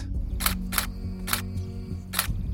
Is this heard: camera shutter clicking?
yes